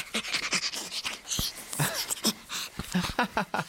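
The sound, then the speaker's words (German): A young chimpanzee, about one and a half years old, laughs while being tickled, a run of breathy, rapid panting huffs with short pauses and occasional squeaky vocal bursts, fairly loud. “Man kann Schimpansen kitzeln und dann lachen die?”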